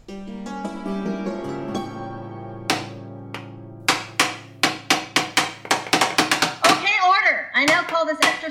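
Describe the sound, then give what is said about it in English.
Judge's gavels bang again and again at a mock trial session of the Hot Dog Committee, where each council member has a gavel: sharp wooden knocks starting spaced apart and then speeding into a rapid, clattering flurry. A sustained tone comes first, and a wavering voice follows the blows. “As this is technically a legal proceeding, everyone on the council is given a judge's gavel.”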